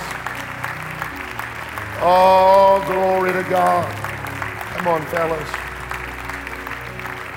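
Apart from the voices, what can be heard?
audience clapping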